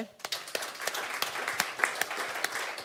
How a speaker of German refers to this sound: Und ich schicke auch nochmal einen Applaus raus an unser Next Generation Team, ey, was die abreißen im Teen Zone Bereich, im Motion Bereich.